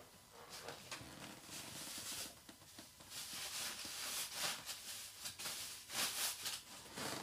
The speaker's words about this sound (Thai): พอดีแมวผมมาเล่นถุงซื้อของเล่นให้เล่นไม่เล่นครับ ไปเล่นถุงอ่า